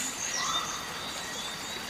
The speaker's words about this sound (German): Wow! Nein, ist das schön da. Ui. Ah. Das Zwitschern und Plätschern.